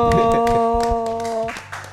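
Audience clapping for a candidate Indonesian maritime ambassador, a rapid spatter of sharp claps mixed with a loud, steady droning tone that holds, then cuts off near the end while scattered claps continue.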